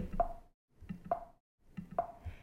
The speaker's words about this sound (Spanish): El sonido de aviso del sistema, ves que aquí pone boop, si yo hago eh, clic en este botoncito de aquí me reproduce el sonido. Tienes que escucharlo porque es muy leve.